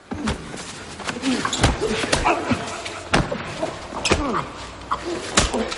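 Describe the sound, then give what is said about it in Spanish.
Heavy kicks thud into a man's body again and again at an uneven pace, as two attackers kick him beside a white van after spraying him. Each blow is a sharp dull impact amid ongoing scuffling and strained vocal noises. “Riyad también le da patadas.”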